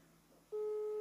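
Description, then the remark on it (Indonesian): A steady electronic phone ringback tone starts halfway through and holds unbroken, heard over a phone call on loudspeaker after a moment of quiet hum, with no one speaking. “Diangkat gak sama dia? Ringing sih.”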